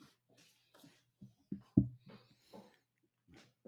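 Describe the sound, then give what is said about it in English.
A dog that needs to go outside whines and whimpers in short, uneven bursts, fairly quiet, with a few breathy snuffles between the cries over a faint low hum. “think that this dog needs to go outside.”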